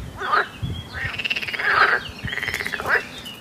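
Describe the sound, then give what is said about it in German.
Local water birds at the Peschersee, a small lake in the Stockheimer Hof nature reserve, quack loudly from the water in a series of buzzy, rasping calls, several overlapping bursts repeating in quick rhythm, as someone sits down on the shore. No one talks. “Ja, diese Vögel haben nämlich ordentlich gequakt, als ich mich da am Ufer hingesetzt habe”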